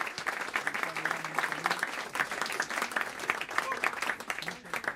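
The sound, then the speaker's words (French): An audience at a jazz set by a saxophonist's quartet applauds the pianist steadily for the full stretch, a dense, even patter of many hands clapping with no pause or build, moderately loud throughout. “Merci de l'applaudir bien fort.”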